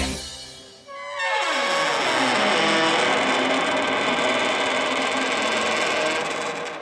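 A long, loud squealing creak of a car door swinging open, its pitch sliding downward at first and then grinding on in a dense, raspy drawn-out groan for several seconds.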